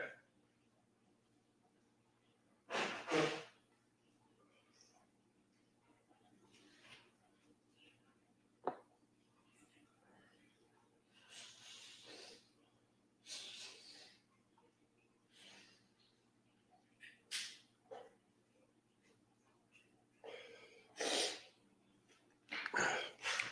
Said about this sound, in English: Give me one more second. I'm gonna sneeze again.